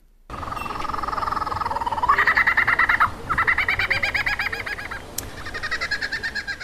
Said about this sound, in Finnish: ensin en ymmärtänyt, mistä oli kyse, ja sitten tajusin, että nämä oudot äänet tulivat tuolta kuusesta. Algerialais syntynyt Kader Attian ääniteos yllätti meidät siinä hauskasti, ja tämä ei ole ihan normaali lintu, joka tuolla kuuluu.